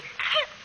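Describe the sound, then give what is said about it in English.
A single short, breathy sneeze: a sudden hissing burst with a brief rising squeak in it, lasting about a third of a second, with no talking around it. “Gesundheit.”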